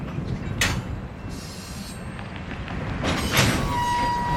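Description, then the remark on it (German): Bright yellow Union Pacific diesel locomotives in North Platte rumble steadily as they push a string of tank cars up the westbound hump, a small artificial hill, with brief metallic hisses and squeals rising over the low, continuous drone. No one speaks. “The uh locomotives that you see straight north of us pushing the tank cars up on top of the hill.”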